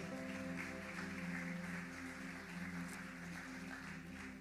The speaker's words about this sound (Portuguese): Você pode aplaudir o Senhor por essa palavra aqui para o nosso coração?